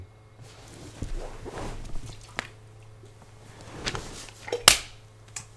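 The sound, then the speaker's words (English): A drink gets knocked over: a few sharp knocks and one loud clatter, mixed with wet, squishy splashing of spilled liquid, with no talking. “damn, knocked no. my drink over.”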